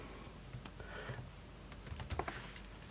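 Quick bursts of typing on a computer keyboard, fairly quiet, with irregular clusters of clicking keys that pick up toward the end, as someone searches Google for the name of a singer's father. No one speaks.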